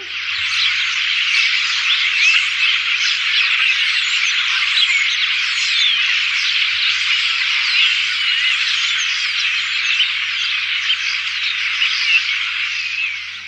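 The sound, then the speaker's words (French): A dense, unbroken chorus of many birds singing together at a roost, countless overlapping chirps merging into a loud, steady wall of sound with a faint low hum beneath and no talking. “vous voyez que c'est un vrai chorus, un bruit de fond euh, de tous ces oiseaux qui chantent.”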